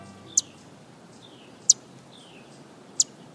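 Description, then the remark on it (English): A male Blackpoll warbler in a city park in Omaha, Nebraska, gives three very high, thin, sharp notes, evenly spaced more than a second apart, against a quiet background with no talking. “Hopping about a city park in Omaha, Nebraska, this male Blackpoll warbler lets on little of the astonishing journeys he makes.”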